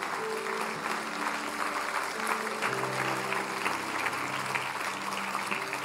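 An audience applauds steadily for about six seconds, a dense wash of clapping at an even loudness, with sustained organ or keyboard tones held underneath.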